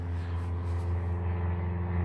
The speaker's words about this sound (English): It's kind of 11 a.m. right now, so there's a lot of plane traffic.